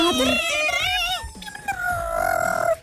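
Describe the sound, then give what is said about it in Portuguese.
A voice imitates a dial-up modem, warbling through a run of high, shifting tones and squeals that glide and bend, then settles into a steadier sustained screech for about three seconds. “aqueles módamos arcaicos.”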